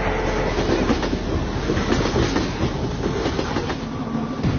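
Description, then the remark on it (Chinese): Train No. 12 rolls slowly along the rails at about five kilometres per hour, a steady low rumble with faint, irregular clickety-clack from the wheels and a thin metallic whine above, continuous and unbroken for the whole stretch, with no voices. “立即通知十二次缓行，时速五公里。”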